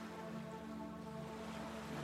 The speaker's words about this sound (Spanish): Descende hasta la orilla y observa cómo las olas que hoy están calmas se acercan con suavidad